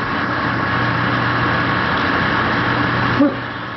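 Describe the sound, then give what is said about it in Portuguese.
A steady, continuous engine rumble with a low droning hum fills the whole stretch as a truck passes by outside, ending with a brief faint knock near the close. “Olha o caminhão passando!”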